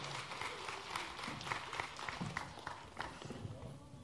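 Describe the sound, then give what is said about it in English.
An audience at a Christmas gathering claps steadily throughout for performers who played angels and shepherds, a dense patter of many hands at a fairly even, moderate loudness, with some murmuring voices mixed into the applause. “Can we give them a round of applause?”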